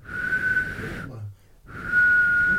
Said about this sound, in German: Warte. Wenn ich so pfeife. Da. Eure Mikrofone, wenn ich so pfeife. Ja, kann, kannst du so? Dann platz eure Mikrofone.